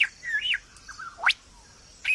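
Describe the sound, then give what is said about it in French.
A lyrebird sings a varied song mimicking the sounds around it, with clear whistles, a sharp rising sweep and short chirps, loud with brief pauses between phrases, with no talking. “L'oiseau lyre possède le don étonnant de reproduire avec précision les sons qui l'entourent.”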